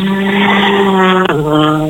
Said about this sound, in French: Ça y est, c'est les premières voitures qui arrivent sur cette première spéciale de cette deuxième journée du Rallye Rhône.